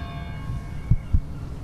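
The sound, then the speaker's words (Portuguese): A distant clock bell strikes half past seven in the morning, heard from the courtyard of a command post; its resonant, shimmering tone hangs and slowly fades across the whole moment, with two soft low thuds underneath. “Cá fora, no pátio do comando, a luz já acordou as gaivotas e o relógio ao longe, que dá às sete e meia da manhã.”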